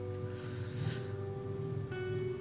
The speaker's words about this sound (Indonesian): aduh udah jam gini motor masih lewat aja